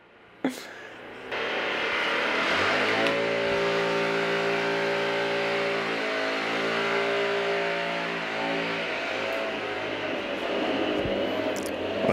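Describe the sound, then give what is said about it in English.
A leaf blower run by a man outside a window: after a brief click, a loud, steady engine roar with a droning whine that wavers in pitch and surges slightly, continuing without a break. “There's a dude with a leaf blower outside of my window right now.”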